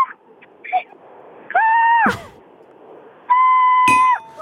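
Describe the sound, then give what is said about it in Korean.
A person imitates the cry of a Suwon crow with two long, sustained nasal calls, each held about half a second, separated by a pause. A few short, fairly loud vocal sounds come before them. “수원 까마귀가 특징이 좀 있나요?”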